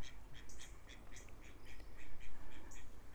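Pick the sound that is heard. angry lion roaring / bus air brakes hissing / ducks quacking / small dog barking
ducks quacking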